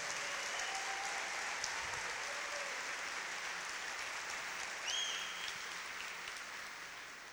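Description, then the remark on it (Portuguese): A crowd applauds Jesus steadily for the whole stretch, a dense wash of many hands clapping that fades slightly toward the end, with a brief high whistle partway through. “Você pode aplaudir a Jesus pela vida do.”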